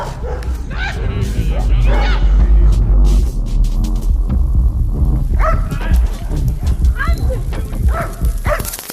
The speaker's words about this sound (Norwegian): Da husker jeg ble sendt hunder på oss.